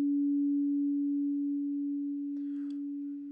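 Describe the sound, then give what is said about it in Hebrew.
A steady, pure synthesized sine tone holds one low-mid pitch throughout, smooth and unwavering, with faint soft background noise creeping in near the end. “זו הגרסה המסונתזת שלו, הנקייה, 285 הרץ.”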